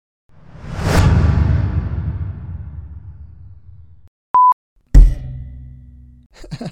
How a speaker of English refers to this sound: it's the sound of somebody hitting a microphone stand and then putting some reverb on it and playing it in slow motion